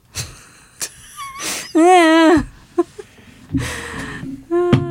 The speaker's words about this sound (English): Sorry, that was the chair.